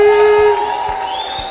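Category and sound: crowd, audience applauding and cheering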